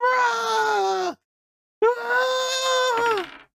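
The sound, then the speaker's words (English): A voice imitates screaming and wailing in two long, sustained, strained cries separated by a short pause, loud, with the second wail trailing off downward at the end. “Something in the church is screaming and wailing.”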